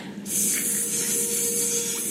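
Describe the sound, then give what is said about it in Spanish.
A voice imitates a snake, acting like a cobra, with a long, steady, loud hiss lasting about two seconds, breathy and high-pitched, starting abruptly and holding without pause. “Se movía en plan cobra, imitaba a la serpiente y la tenía justo aquí y hacía...”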